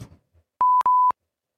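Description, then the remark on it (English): Two steady, pure-pitched beeps of a hearing test tone play back to back, each lasting about a quarter second, clear, after a brief murmur of faint background noise. “I think you might need to go into the booth uh, where they do the ear thing with, you know, the beeps and stuff.”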